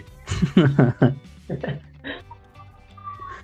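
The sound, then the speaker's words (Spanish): A street mattress vendor's loudspeaker announcement: an amplified, slightly tinny voice calls out in a few quick, clear bursts, then trails off into quiet street background. “Ahí viene el de los colchones.”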